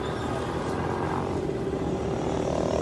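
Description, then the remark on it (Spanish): A helicopter arriving at São Paulo airport: a steady, loud rotor and engine roar fills the whole stretch, a dense whirring rumble that holds constant without pause, with no voices over it. “Helicóptero chegou agora, helicóptero.”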